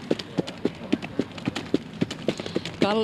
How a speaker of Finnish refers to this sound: No, ry- rytmikestä juoksua ja sehän on hauskaa, että tässä kärryllähän tuntuu ja sa- tuntee samalla tavalla kuin silloin kun ratsastaa hevosta, niin se hevosen liike.